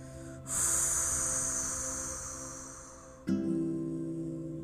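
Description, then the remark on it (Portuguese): One long, deep exhale of nearly three seconds during a slow deep-breathing exercise, released after holding the breath: a steady airy rush that slowly fades, with a soft tonal hum underneath and a brief voiced sound near the end. “Novamente, respirando profundamente.”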